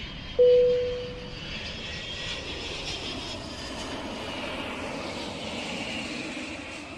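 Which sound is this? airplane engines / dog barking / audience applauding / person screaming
airplane engines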